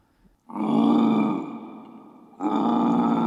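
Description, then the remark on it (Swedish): A deep, rough growl sound effect, played as one of the sound-effect tracks at the end of an album, in two drawn-out bursts: the first swells loud and then fades, and a second gravelly rumble surges back and holds to the end. No talking. “Sätt på typ growl eller laugh.”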